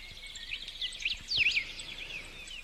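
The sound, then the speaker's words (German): Quiet birdsong played from an Amazon Echo Dot smart speaker, with quick, warbling chirps and whistled trills, a busy layered chorus that swells briefly in the middle, sounding thin, with no one talking. “Da habe ich jetzt einfach ein bisschen Vogelgezwitscher uns dazu geholt.”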